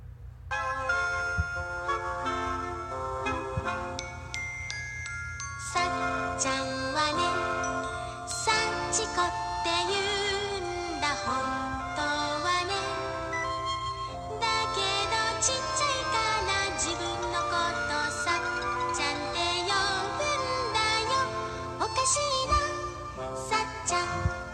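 A gentle Japanese children's nursery song plays as a bright, chiming instrumental melody with bell-like tones over a soft steady accompaniment, moving in simple phrases with short pauses between them and no voices.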